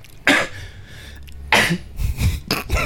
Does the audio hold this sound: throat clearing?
yes